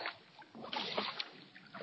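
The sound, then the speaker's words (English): Kayak paddling through choppy water, with broad splashing and sloshing surges rising and falling unevenly as the paddle strokes push through small waves, fairly quiet and with no voices. “I am kayaking. I'm just paddling a few more so you can hear the beautiful sounds of the waves”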